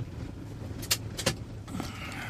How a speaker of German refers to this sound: Der startet. Hey, ist das ein schönes Auto? Ich habe ja diesen Bulli hier gekauft, T4 uralt von 91. Aber der arbeitet und tut's echt. Das ist unglaublich. Unglaublich. Der rostet zwar so ein bisschen hier oder da, aber ey, scheißegal.